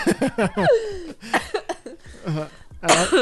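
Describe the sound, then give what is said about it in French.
A woman coughs and chokes, a run of sputtering, voiced bursts with strained gasps between them, some edging toward laughter, loud and uneven over a few seconds. “elle, a, toussé, c'est bon signe. non, je suis en train de m'étouffer”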